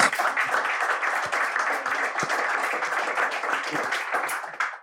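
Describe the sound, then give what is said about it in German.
A crowd applauds a volunteer steadily, dense overlapping clapping at an even loudness for several seconds before tapering off at the end. “Ein Applaus”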